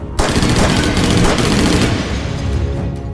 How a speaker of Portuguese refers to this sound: Antes de abrirem a porta para o corredor principal, eles conseguem ver os atiradores, que consequentemente também notam a presença dos dois do outro lado da porta. A atitude dos dois, novamente, foi atirar.